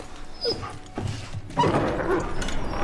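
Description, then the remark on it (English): A dog named Ghost growls low and whines in agitated bursts, angry about what he's sleeping on, with brief pauses before the grumbling grows louder and more continuous toward the end. No one speaks. “Ghost is angry right there Ghost. about what he's sleeping on.”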